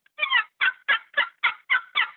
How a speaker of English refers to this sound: So I could take this one box call and make three different turkey sounds on it.